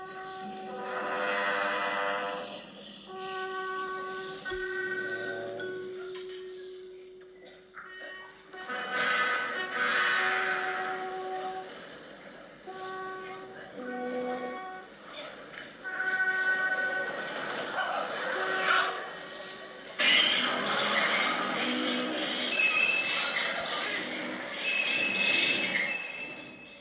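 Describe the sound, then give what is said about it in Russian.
Dense, dissonant orchestral music in which electronic sirens are mixed in with ordinary instruments, along with other recorded sounds, sustained chords and rising swells that surge louder in the second half, no voices. “На самом деле там к обычным инструментам примешиваются электронные сирены, возможно, вы это услышали, а еще записаны разные другие звуки, звуки Вселенной.”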